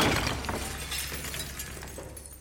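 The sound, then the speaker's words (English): A heavy crash of glass as a chandelier smashes down, a loud burst followed by scattered tinkling shards that skitter and settle over a couple of seconds, without any voices. “At one point, Hitler is pulled out of harm's way, in the nick of time, as a chandelier comes crashing down.”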